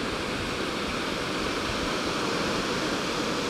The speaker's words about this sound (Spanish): Déjame un segundo que escucho el mar. Ojalá se escuche para ustedes.